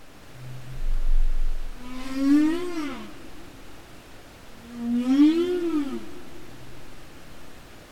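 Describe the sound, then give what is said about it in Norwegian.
Humpback whale song picked up by microphones on the seafloor: two long rising-and-falling moaning calls with rich harmonics, separated by a short pause, over a steady low hiss of background noise. “Dette er en knølhval fanga opp av mikrofoner på havbunnen.”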